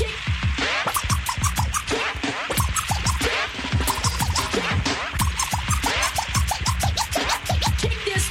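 DJ turntable scratching fills the track, with rapid back-and-forth scratch strokes chopping rhythmically over a steady thumping beat, loud and continuous from start to finish.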